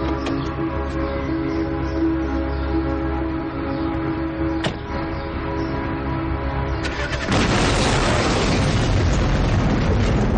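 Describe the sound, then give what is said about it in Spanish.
A steady, low engine-like hum runs for about seven seconds, then a car bomb blows up a man's car in a sudden loud blast whose roaring, crackling noise carries on to the end. The scene is set in Bilbao in 1980. No one speaks. “El coche explota.”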